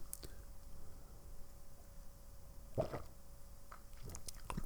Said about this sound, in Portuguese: Mas uh, vamos fazer então aqui uma pequena pausa só para eu beber mais um bocadinho de água, só um momento.